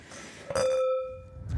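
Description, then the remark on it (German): Two empty wine glasses clink together once, and the bright glassy tone rings out clearly for about a second before fading into quiet. “Die Gläser sind noch leer.”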